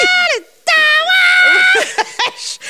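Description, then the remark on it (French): A single voice loudly imitates a wailing, screaming song chorus: a short falling cry, a brief pause, then a long sustained high wail that breaks into ragged, strained yelps. “Somme toute, c'est assez normal au début, mais le refrain, quand elle se met à chanter puis à gueuler, elle l'échappe, elle crie”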